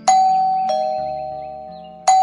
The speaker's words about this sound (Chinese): 吃早餐的时候，门铃突然响了。